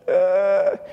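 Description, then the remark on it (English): A person imitates the stridor breathing of a child with recurrent croup: one sustained, high-pitched, strained crowing breath lasting most of a second, fairly loud, with no speech. “This is the kid who comes in with quote unquote recurrent croup, who sounds like this.”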